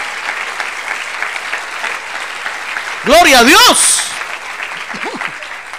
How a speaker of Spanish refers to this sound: ¡Ah, gloria a Dios, gloria a Dios! Démosle un aplauso al Señor, hermano.